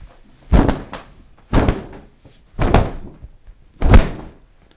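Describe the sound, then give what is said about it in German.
Very densely woven Flemish linen, a heavy sailcloth-inspired fabric used for sewing mattresses, handled in four firm, evenly spaced snaps or flaps, each a loud whooshing thump with a crisp rustle that quickly fades. No one speaks. “Und das Besondere daran ist, wir können jetzt natürlich den Stoff nicht zeigen, aber der hat einen unglaublich tollen Klang.”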